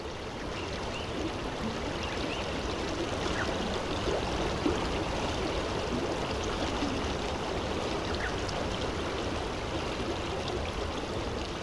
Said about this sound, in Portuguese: Esse é o som que ouvimos na margem do rio Tapajós.